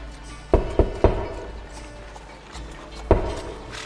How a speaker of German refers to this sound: Und nach einem guten Stück Fußmarsch kommt ihr an beim Bücherfresser vor seiner Tür. Also ich würde an der Tür klopfen.